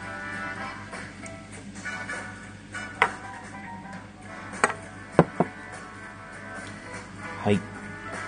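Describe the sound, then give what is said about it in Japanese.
Steady crackling fizz of soda just poured into a glass to mix with Jägermeister, a dense hiss of bubbles with a few sharper clicks and taps of the glass scattered through. “シュワシュワ言っております。”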